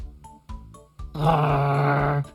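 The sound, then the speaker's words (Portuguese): A person imitates a dog barking: three short, evenly spaced woofs followed by one long, drawn-out, louder bark that tails off abruptly. “Posso ladrar? Au! Au! Au!”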